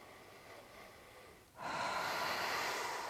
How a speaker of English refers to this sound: And then, and even for, for people that, that are listening right now, take a breath.